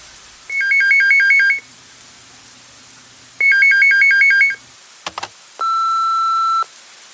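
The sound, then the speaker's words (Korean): A telephone rings twice after midnight in warbling electronic bursts, clear, then a click and a single long steady beep as an answering machine picks up. No one speaks. “자정을 넘긴 이 시간에 올 전화는 그 사람뿐.”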